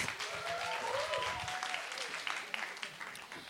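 Steady audience applause, a dense wash of clapping hands that holds fairly loud throughout, with a brief voice or cheer rising over it near the start.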